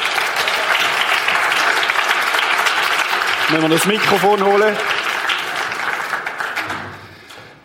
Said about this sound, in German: Geben einen Applaus.